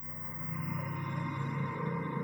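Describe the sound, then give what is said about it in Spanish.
A steady electronic alarm tone hums continuously inside a spaceship near midday, marking the time of the ship's weekly meeting, sustained and unbroken with layered pitched drones. No one speaks. “Suena dentro de la nave una alarma.”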